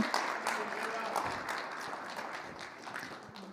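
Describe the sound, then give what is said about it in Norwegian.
Steady applause from an audience for the worship team at a church service, a dense wash of many hands clapping at once that holds at an even level for a few seconds. “Skal vi gi en applaus til lovsangsteamet, dere?”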